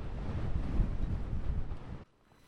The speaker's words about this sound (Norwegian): her kommer virvelvinder rundt Gaustatoppen. Og da kommer de inn i sida her, og det blåser. Akkurat når du kommer ut her, så blåser det som regel veldig mye.